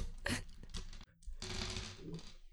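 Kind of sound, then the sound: nine dice being rolled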